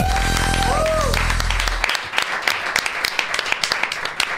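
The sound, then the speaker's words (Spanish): An audience applauds steadily for a co-host, a dense patter of many hands clapping throughout. At the start, a loud low tone with a swooping higher whistle-like sound fades out under the clapping. “Que siga ese aplauso para mi compañero”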